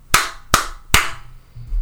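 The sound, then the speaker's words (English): Three sharp hand claps, given on request during a recording session, in a steady, even rhythm, each a crisp, bright smack that dies away quickly, followed by a moment of quiet. “can I get three claps?”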